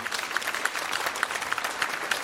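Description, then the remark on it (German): An audience claps steadily, many hands producing a dense, crackling wash with scattered sharper individual claps popping out above it. No one speaks. “Und aus der Hausbesetzung ist die Gedenkstätte Topf und Söhne entstanden und auf der ganzen, ja, dafür kann man wirklich klatschen.”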